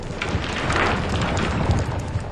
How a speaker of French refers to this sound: La terre trembla,